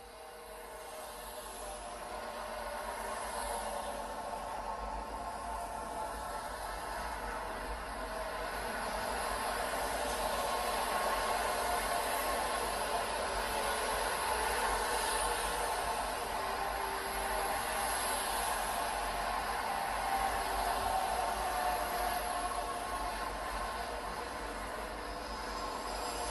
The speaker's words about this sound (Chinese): 好，那我们刚刚听到的声音呢，其实就是台中另外一条很重要的快速道路，就是台六十一线。